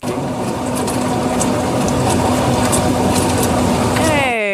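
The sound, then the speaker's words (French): A recently replaced dishwasher running, a steady loud churning whir with a low hum and faint recurring clicks, cut off at the end by a brief descending electronic sweep. “Ben là, c'est autour du lave-vaisselle. Ah, puis lui, il ah. fonctionne, celui qu'on vient d'entendre.”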